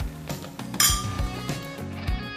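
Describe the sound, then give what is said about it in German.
Two glasses clink together once in a bright toast, the ring lingering briefly over soft low thumps and rustling in the background. “Danke dir. Zum Wohl. Zum Wohl.”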